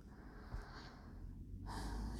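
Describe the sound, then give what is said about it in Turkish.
An airy intake of breath, soft at first and then swelling into a fuller, deeper inhale toward the end, with no talking. “Sizde bir derin nefes aldım.”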